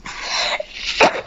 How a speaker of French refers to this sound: Excusez-moi, pardon. Un hmm, à vos souhaits. Merci beaucoup.